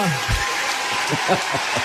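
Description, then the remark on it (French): Steady applause from a crowd at a gala, a round of applause for Tarek Fatah, fills the background, a dense, even patter of many hands clapping while a voice talks over it. “Ben, encore une ronde d'applaudissements, s'il vous plaît.”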